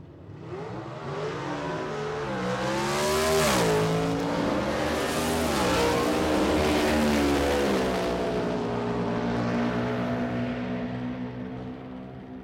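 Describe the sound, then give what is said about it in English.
Several loud motorcycle engines of a gang of bikers rev and roar, pitch climbing and dipping as throttles open, a dense sustained growl that swells and holds for the whole stretch with no voices. “Is a motorcycle gang going to show up out of nowhere and start?”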